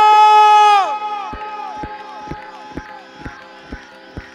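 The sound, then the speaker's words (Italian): An audience at a Victory night party lets out a loud, swelling cheer that drops away after a second, followed by steady rhythmic clapping in time, roughly two claps per second, over a sustained background hum of voices. “Vorrei sentire l'applauso”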